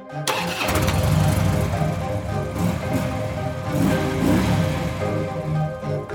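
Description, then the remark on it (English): A filthy motorcycle's engine fires up with a sharp burst, then revs hard and holds a loud, rumbling roar for several seconds as it peels out of a diner parking lot, with no voices. “I get my answer as Fotor left the circle and got on the motorcycle. He gave a long look over toward my car and then peeled out of the parking lot.”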